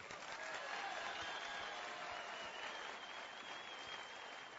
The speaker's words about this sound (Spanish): Vamos un aplauso como ella se lo merece.